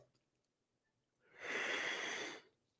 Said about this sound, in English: I might have to sneeze. Hold on one second. I might have to sneeze. Nobody leave. Please don't leave me while I sneeze. Hold on.